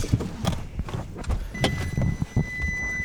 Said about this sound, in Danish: Åh, oh. Øj, den ruller. Bilen ruller. Stop bilen på søren der.